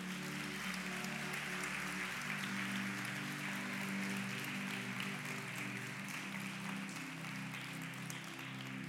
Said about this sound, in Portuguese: Será que você pode aplaudir esse Deus nessa noite?